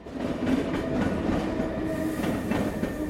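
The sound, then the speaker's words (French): A train rumbles steadily past a platform at Lausanne railway station, with rhythmic clicking of wheels over rail joints and a continuous low roar. No one speaks. “C'est depuis les quais de la gare de Lausanne qu'on accède au quartier des musées, la fameuse plateforme 10 inaugurée en juin 2022.”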